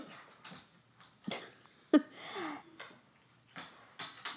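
A dog stirs while being told to lie down, making a string of short scuffling, clicking bursts with a brief whiny yelp in the middle, irregular and fairly quiet.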